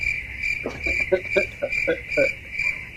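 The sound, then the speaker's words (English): A cricket chirps in a steady, unbroken high-pitched trill that runs through the whole stretch, while a faint voice murmurs briefly underneath. “Nobody your thinks that's funny except for me and that cricket.”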